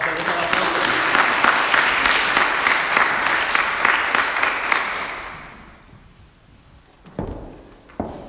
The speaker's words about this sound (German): Danke. Applaus.